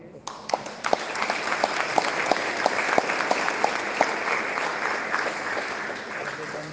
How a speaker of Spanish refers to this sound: Nuestro párroco que ha regresado, vamos a darle un aplauso, ¿verdad?